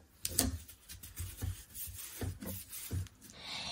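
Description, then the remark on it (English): Paper tape is pressed and smoothed all the way across a fold in fabric, on top of the design, making a series of short rubbing and crinkling strokes in an uneven rhythm, with no one speaking. “So now that those are overlapping, again on the top of your design, I'm going to take a piece of paper tape and place it all the way across that fold.”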